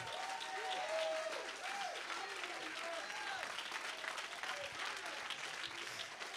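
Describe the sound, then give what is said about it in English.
An audience breaks into sustained, dense applause, a hand clap of praise to the Lord during a sermon, holding steady for several seconds, with scattered voices calling out and cheering underneath the continuous clapping. “Somebody give the Lord a hand clap of praise right now.”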